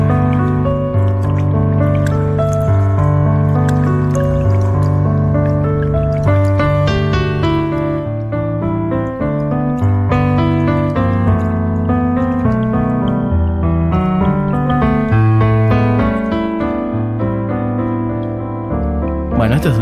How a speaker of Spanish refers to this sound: Un piano ahí con una agüita de fondo. Y esto dura un minuto y algo. Son como dos inserts que hay en el medio del disco que lo quería traer.